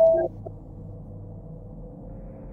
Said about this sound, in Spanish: Ah, ya, ya nos están marcando. Ahí está, llamadita, llamadita, échale, échale, amigo.